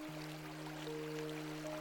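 A soft, continuous babble of running river stream water, steady and fairly quiet throughout, with a faint sustained tonal hum beneath it and no voices.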